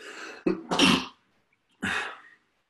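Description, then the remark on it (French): A sneeze with a brief sharp onset that runs into a longer explosive burst, then after a pause a second fainter burst. The bursts are loud, breathy and noisy, with no talking. “je voyais vos lèvres en train de dire à tes souhaits.”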